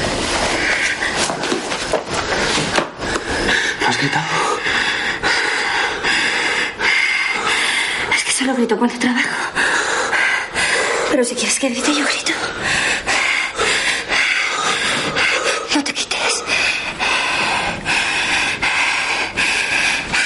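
Heavy panting of two people, voiced by one man while he packs his suitcase in his room, runs in a steady, breathy rhythm the whole time, the rough gasps overlapping and fairly loud against a dense background hiss.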